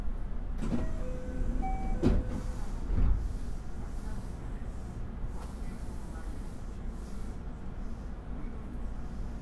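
A JR West 323 series commuter train on the Osaka Loop Line outer loop, running from Osaka to Tsuruhashi, Japan, rolls along with a steady low rumble heard from inside the carriage, with a few sharp clunks and faint tonal whines near the start.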